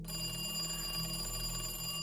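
A telephone bell rings steadily at a bank director's home in Lillehammer, Norway, at seven in the morning on Tuesday 9 April 1940, a bright sustained metallic trill with many high overtones over a low hum, heard alone without any voices.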